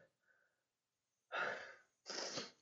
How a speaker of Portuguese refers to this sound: Aí está, pronto. E o espirro falso. Espirro falso, né?